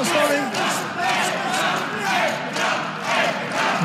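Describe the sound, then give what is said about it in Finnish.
A large Finnish home crowd shouts and cheers from the stands in a dense, continuous roar, swelling in rhythmic surges about every half second to second, with chant-like voices rising above the din, while Finland leads 2-1. “Suomalaisyleisö huutaa ja kannustaa katsomossa.”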